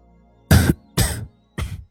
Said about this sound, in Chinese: 小轩子这会儿是真的吓得摔倒在地上，眼睁睁的看着自家主子从高墙落下，然后伸手扶住了一边的高墙，捂着胸口剧烈的咳嗽了起来。